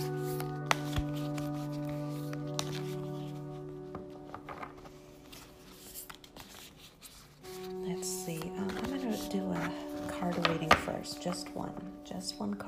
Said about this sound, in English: Um, I'm also shuffling some cards.